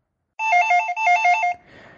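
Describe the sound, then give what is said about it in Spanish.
A telephone rings with a rapid electronic warble, two bursts of alternating tones in quick succession, loud, then cuts off into faint background noise. It is the first ring. “Primer tono.”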